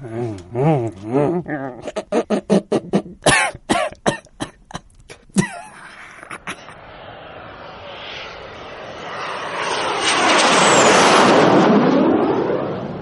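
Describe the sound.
After a few seconds of voice-like sounds and sharp coughing bursts, an airplane engine roar swells steadily into a loud, broad rushing drone with a thin high whine gliding downward.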